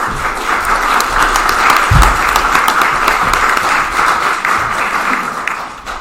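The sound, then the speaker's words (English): An audience applauds steadily, a dense, crackling wash of many hands clapping at full volume for several seconds before beginning to ease off at the end. “Please, please honor them and give them applause.”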